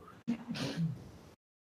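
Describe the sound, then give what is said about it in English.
A single sneeze: a sharp, voiced burst with a breathy, hissing spray that lasts about a second before cutting off into silence. “Bless you.”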